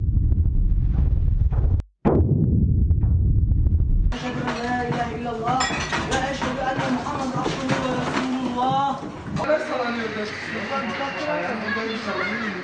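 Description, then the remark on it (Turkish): A deep, loud rumble of a magnitude 6.8 earthquake at 6.7 km depth, with rattling roars and shaking glass for about four seconds, cutting out briefly. Then excited voices talk and shout over lingering background noise. “Sesi böyle kaydedildi.”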